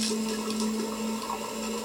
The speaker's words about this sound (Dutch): de kraan loopt.